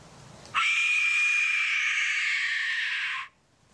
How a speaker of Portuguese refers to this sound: Uma rapariga da era moderna a usar um destes assobios. E agora te pedia de para não falar, senão vamos ouvir em duplicado. Um, só para perceberem co como é que soa este, um, este assobio